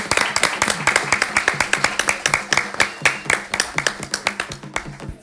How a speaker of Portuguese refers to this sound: Por favor, palmas gente!